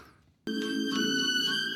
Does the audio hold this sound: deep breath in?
no